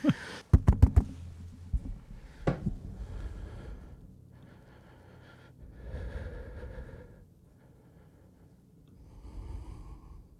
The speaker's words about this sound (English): but before he calls, you can just hear some heavy, heavy nervous breathing from me.